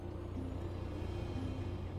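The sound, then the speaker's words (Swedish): A steady, low engine rumble from a truck idling outside a house at night holds at an even level throughout, with a constant deep hum and no voices. “Utanför hörs ljudet från en lastbil på tomgång.”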